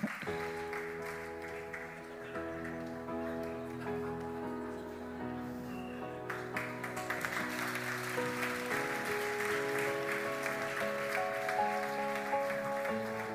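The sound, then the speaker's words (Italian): An audience claps steadily to welcome the character 'Business Jesus' as he enters, the applause swelling midway and continuing to the end, layered over music with sustained tones playing throughout. “Facciamolo entrare, accogliamolo con un applauso.”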